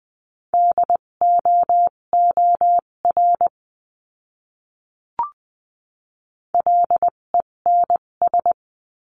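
Morse code beeps in a steady mid-pitched tone, keyed into quick dots and dashes spelling a word at 14-20 words per minute in a Morse code word lesson, in two bursts separated by a pause with a single soft click; no voices.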